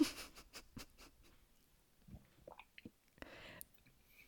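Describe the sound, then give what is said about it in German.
Quiet mouth sounds of someone sipping and tasting a watermelon-flavored drink: a run of soft wet clicks and smacks, then a few swallowing gulps, with no talking. “So trinken und schlucken, am besten auch so.”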